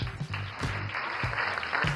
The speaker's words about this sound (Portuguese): Eu quero aplausos.